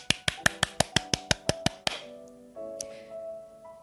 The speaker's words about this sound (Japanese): これはもう一同じね、えー、場所で働いてる人間として私は拍手を送りたいと思います。